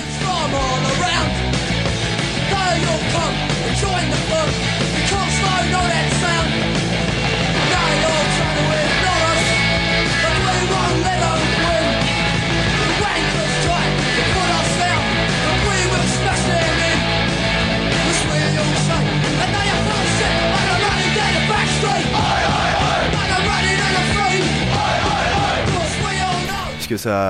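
Loud, raw Oi punk song with distorted guitars, pounding drums and a gang of voices shouting chanted refrains over a fast, steady beat.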